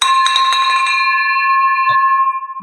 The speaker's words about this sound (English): I love it. Victory bells all around.